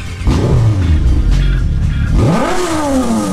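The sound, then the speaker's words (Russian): A car engine turns over and roars to life, idling low for a moment before revving up sharply in a rising whine. Loud, with no voices. “Ну что, заводим и вперед!”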